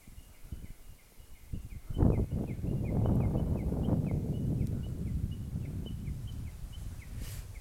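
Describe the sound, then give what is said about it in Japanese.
A Japanese bush warbler sings outdoors, heard while walking back to a bus stop, a steady run of short, high chirps repeating through the whole clip, partly masked by a loud rumble of wind or a passing car from the second second on. “今ちょっと帰り道バス停まで歩いてるんですけどホ法華経があ車来たちょっとね法法華経がねめっちゃよくって なんちゅう感想なんだって感じですけど聞こえます聞こえてるかな”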